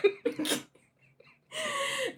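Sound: coughing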